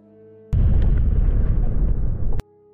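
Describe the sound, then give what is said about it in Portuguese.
A loud explosion on a spaceship, which begins to catch fire, erupts suddenly and rumbles heavily for about two seconds before cutting off sharply, with a faint steady hum before and after it. “Começa a pegar fogo, tu vê que explode algo na nave.”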